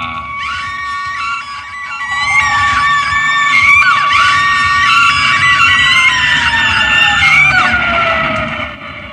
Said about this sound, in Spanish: todas partes con gritos y sonido de ambulancia.